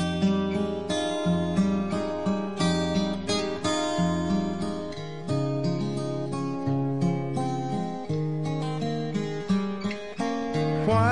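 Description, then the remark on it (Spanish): A country song plays steadily at full volume, with strummed chords and a bright, rhythmic instrumental backing driving along without pause. “los mismos que siguen manteniéndolo en la cumbre y como un referente indispensable de la música country, con más de 40 hits y álbums que han sido oro y platino y que desbordan calidad musical.”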